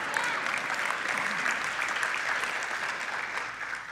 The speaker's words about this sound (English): One person in the back is super excited. They clapped about that.